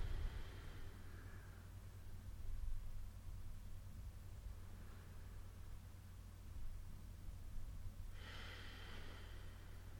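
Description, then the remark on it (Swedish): Deep, airy breaths from people doing a breathing exercise, filling the lungs so the belly moves out and in, rush in and out at a slow, uneven pace over a low background hum, with the loudest, longest breath near the end. No one talks. “Det är jättebra att, ni, att det hörs att ni andas men man kan försöka göra det lite lugnt så man liksom inte pressar för mycket så att det bara är en, liksom ganska mjukt hela tiden.”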